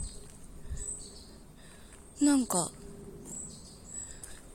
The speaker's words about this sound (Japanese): また新しい種類の鳥が来てます。あの鳴き方は何ですか知ってる人教えてください。